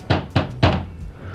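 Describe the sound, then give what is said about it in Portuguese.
Three knocks on a metal shelf in a home, fairly loud, each a sharp hit with a short hollow ring that fades before the next. No one speaks. “Aqui uma estante de metal”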